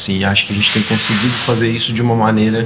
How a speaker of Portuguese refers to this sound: Esse ruído que você está escutando ao fundo vem de dois militantes usando aquelas fitas adesivas grandes para embalar material de campanha na sala ao lado.